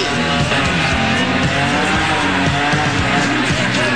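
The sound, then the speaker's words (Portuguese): A car engine revs hard and loud while tires squeal continuously, the strained whine rising and falling over several seconds, as a woman's car struggles and fails to drive up a slope, filling the whole stretch. “deu babado no carro dela, ela não consegue subir.”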